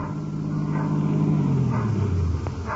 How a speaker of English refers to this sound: I believe that's Mrs. Herger's car now, coming around the corner.